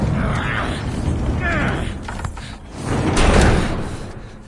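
Heavy doors grind and creak as they are barricaded, with scraping, rattling strains and a louder rumbling push near the end, all steady.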